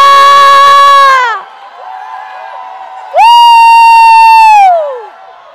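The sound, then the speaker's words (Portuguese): Two long, loud, high-pitched shouts from a single voice, each held for over a second before trailing off, with a short gap between them, as if mimicking an audience yelling and cheering. “Mas esse negócio de gritar muito, esse negócio de fazer assim, extravagância, não precisa disso.”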